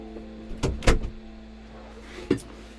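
A door is pushed shut with a couple of quick wooden clunks and a solid thud, followed a moment later by a softer click, against a faint steady hum. Nobody speaks.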